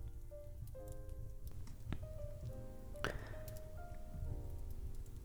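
A fireplace burns with a steady low roar, scattered sharp crackles and pops breaking through, while soft sustained tones hum faintly underneath. No one speaks.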